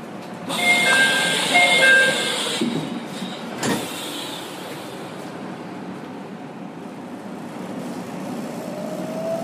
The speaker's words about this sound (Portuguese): Aí vai ter um sinal, a porta ela vai se fechar e o trem vai sair para a gente aí passar alguns minutos nesse trajeto.